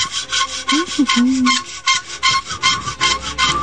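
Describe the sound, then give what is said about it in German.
A nail file rasps in quick, steady back-and-forth strokes as someone files their toenails, about a dozen scratchy, hissing passes in a row, with a faint low squeak partway through and no talking. “Sie feilt sich die Fußnägel.”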